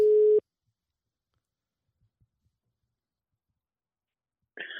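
A loud, steady telephone ringing tone of an outgoing call sounds briefly and stops, followed by several seconds of silence before a voice begins speaking as the call is answered.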